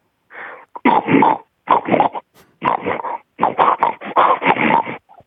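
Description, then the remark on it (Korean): A woman's voice imitates a pig that is hungry in the morning, with a string of grunting, squealing bursts in uneven rhythm, loud, with short pauses between them and no speech. “먼저 돼지 소리 한번 들어볼게요. 예, 돼지가 아침에 배고플 때요.”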